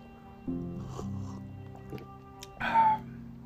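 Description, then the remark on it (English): A sip of coffee: a soft wet slurp, then a brief pause and a louder slurping gulp near the end, over a faint steady hum. “so let's start as we usually do with a sip of coffee.”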